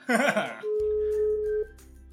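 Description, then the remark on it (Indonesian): A short burst of laughter, then a steady phone tone from an outgoing call hums for about a second over a low electrical buzz before cutting off. “Oke, ini kita telepon satu orang lagi.”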